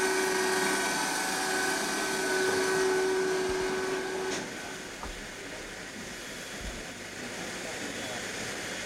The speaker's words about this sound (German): Zunächst wird die Verblüffung an diesem Ring hier aufgehoben. Sie sehen sich, ein Sperrring bewegt sich. Äh, der die Türe freigibt. Die Türe geht nun auf. Sie haben den ersten Blick in das Innere des Reaktorumschließungsgehäuses.